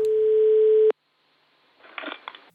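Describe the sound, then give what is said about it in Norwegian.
A single steady telephone ringing tone sounds for under a second and cuts off abruptly, followed by a pause and a short burst of muffled, crackly line noise, as a radio reporter phones the headteacher of Slettbakken school. “Og jeg ringte rektoren her for å høre hvordan de tenker om avslutninga.”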